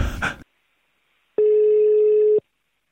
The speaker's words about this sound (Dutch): Uh, oh, en sorry. Ik hoor een belletje binnenkomen, geloof ik.